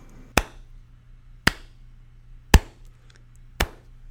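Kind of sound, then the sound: human body sound, slow clap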